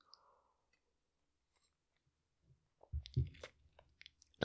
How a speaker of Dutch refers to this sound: Ik ga eerst even een slokje van mijn thee nemen.